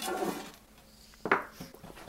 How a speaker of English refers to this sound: Now that that's done, we're going to pour it into the pan. So you can use parchment paper or a greased pan. I'm choosing to use parchment paper because that always really works well.